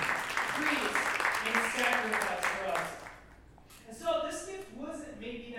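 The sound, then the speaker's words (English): An audience applauds Jesus with dense, steady clapping for about three seconds, voices mixed in, before the clapping fades and a single voice speaks on its own. “Can we give Jesus a round of applause like that?”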